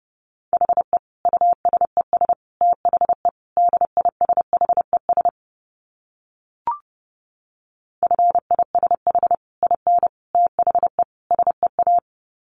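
Morse code sent at 30 words per minute: a steady mid-pitched tone keyed in rapid dots and dashes, in two runs separated by a pause broken only by a single faint click.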